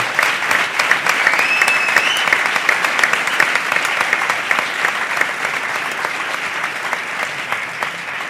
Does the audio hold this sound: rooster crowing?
no